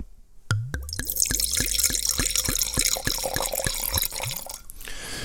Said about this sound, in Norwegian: Denne her vinen her fins faktisk også på bag box. Jeg må helle i glasset.